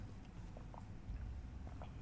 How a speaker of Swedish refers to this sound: nu sitter jag och klunkar vatten i och med att när man slåss mot eh, isbjörnar så det tar, det tar på kroppen.